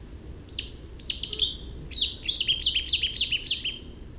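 A Cetti's warbler bursts into song: a loud, abrupt run of sharp, ringing notes that starts hesitantly and then tumbles rapidly, heard clear over a low background rumble.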